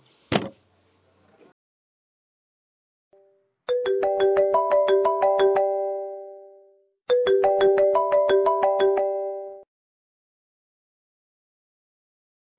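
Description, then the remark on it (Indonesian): A telephone ringback tone during an outgoing call sounds twice, each a few seconds of steady warbling tones separated by a pause, preceded by a brief click and high beep, with no voices present. “Nah, kita hubungi beliau via telepon saja ya. Oke, kita telepon beliau.”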